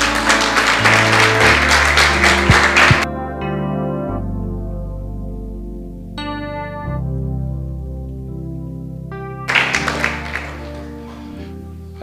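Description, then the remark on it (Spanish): A church audience applauds the Lord loudly for a few seconds over sustained keyboard chords. The clapping stops while the music holds alone, then a second burst of applause breaks out near the end. “Denle un aplauso al Señor.”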